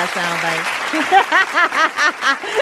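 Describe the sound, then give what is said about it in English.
A short canned burst of crowd applause with loud, repeated whooping cheers rising and falling over the clapping, opening with a brief sustained tone. “Let me get my claps. My bad. My I got sound bites.”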